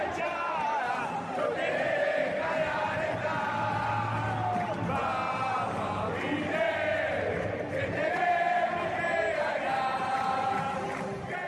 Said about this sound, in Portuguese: É, a, a, o recebimento né, que a, a torcida do Penarol faz, a recepção ali na, na, na entrada do time é muito legal, eles fazem muito barulho mesmo.